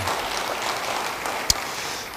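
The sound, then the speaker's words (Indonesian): A steady wash of crowd applause fills the space, dense and even throughout, with one sharper single clap standing out briefly near the end. “Beri tepuk tangan yang baik bagi dia.”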